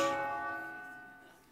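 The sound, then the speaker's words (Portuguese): A single church bell strike rings out with a bright, metallic onset, its layered tones humming and slowly fading over about a second and a half. There are no voices. “E para terminar, e agora vem o sino. Deixa que o sino de chamamento divino toque na tua alma.”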